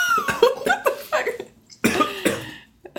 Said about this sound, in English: was a really weird sound. I got a I got a little bit of Clif Bar in my throat.